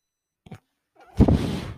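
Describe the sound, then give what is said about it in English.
A breathing ventilator gives a short puff, then a louder, breathy mechanical whoosh of air that swells and holds, with no talking. “That noise you hear is my ventilator.”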